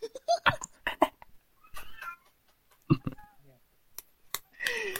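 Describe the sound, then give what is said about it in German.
Cats fighting, yowling and meowing in a rising, wavering caterwaul, several drawn-out cries broken up by sharp clicks and scuffling, with a loud screech at the end. “Die klassischen Katzenfights.”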